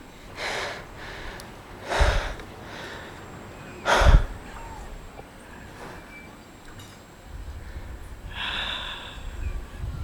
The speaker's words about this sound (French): c'est l'inspiration, l'expiration, et c'est les variations comme ça, ou le temps différent euh, que tu as des fois quand tu inspires et quand tu expires, et il n'est pas le même quand tu veux t'endormir, par exemple, ou que... Voilà, écoute.